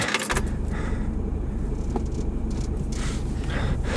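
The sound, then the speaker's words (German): A car engine rumbles steadily and fairly loud from start to finish as the vehicle gets underway, with a brief clatter at the very beginning like keys or a door. “Abfahrt.”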